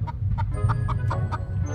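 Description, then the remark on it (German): A rooster, brought along as live provisions and about to be slaughtered, squawks in a rapid string of short, agitated bursts, about half a dozen in quick succession, fairly loud over a steady low rumble in the background. “Geweckt wurde ich vom Geschrei eines Hahnes, den wir als lebenden Proviant mitgenommen hatten und dem es nun an den Kragen gehen sollte.”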